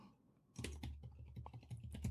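Rapid typing on a computer keyboard, a quick stream of crisp key clicks that begins after a short quiet moment and continues steadily to the end, as someone writes a short text in a text editor app.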